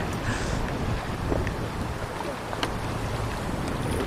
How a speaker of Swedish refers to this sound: Det blåser.